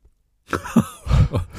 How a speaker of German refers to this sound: ich dachte, ich muss niesen.